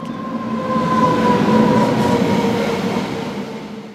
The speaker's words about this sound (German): Ein paar Minuten später fährt mein Zug auf Bergün und ich mache mich wieder auf den Heimweg.